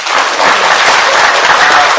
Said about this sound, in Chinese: 给自己鼓鼓掌啊！